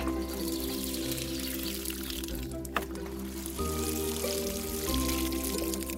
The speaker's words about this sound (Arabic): وبينما كان يسقي الزرع راى جارتهم تسقي حشائشها هي الاخرى